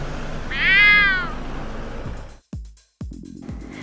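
A single drawn-out cat meow rises and falls over a steady background hum, followed by a couple of abrupt clicks and brief silences.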